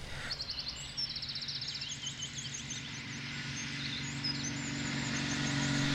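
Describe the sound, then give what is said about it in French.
A small engine drones steadily and grows gradually louder and harsher, a large chainsaw run by a forester cutting wood in the Zamalash mountains, over 1000 km west of Materwan Centrum, while birds chirp in quick bursts near the start. “Un des forestiers tranchait consciencieusement son bois, comme toute l'équipe travaillant pour la Syrie.”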